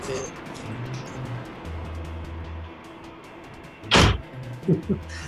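A door is opened for a visitor with a single sharp thunk, followed by a couple of softer clunks, against a steady low background hum and rustle.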